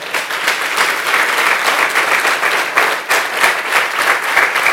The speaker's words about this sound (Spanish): ¿Cuántos dicen amén? Fuerte ese aplauso.